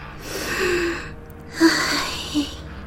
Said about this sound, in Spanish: respiró profundamente